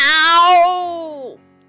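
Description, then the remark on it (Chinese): A person's voice imitates a big fat cat's most frightening meow: one long, loud, drawn-out cry that holds a steady pitch before bending downward and cutting off sharply. “肥猫憋足了劲儿，用最最可怕的声音叫了起来：“ 喵！”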